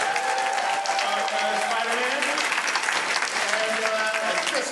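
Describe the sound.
Steady audience applause fills the whole stretch, a dense, even wash of many hands clapping at once, with faint voices murmuring underneath.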